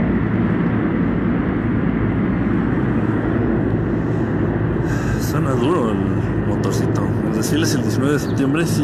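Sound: helicopters flying overhead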